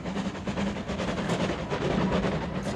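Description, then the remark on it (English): A train approaching along the rails, a steady rumbling roar with a low droning hum underneath, continuous, with no voices. “You can feel a train coming in the shake of the earth.”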